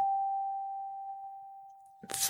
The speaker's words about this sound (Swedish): Och det här ser då ut som ett stort sånt här klockspel ja. fast det är bara en tangent ja, skulle jag kalla det. Ja, en ton, mm, en klingande stav, en tonbox eller en tonboxar säger en del. Klingande stav är ett namn som jag brukar använda.